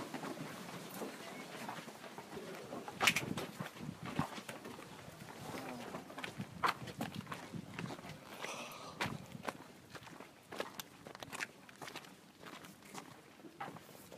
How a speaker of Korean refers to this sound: 제가 잠깐 서서 여러분들 네, 광야의 까마귀라고 불리우는 새가 유인을나리고 있죠.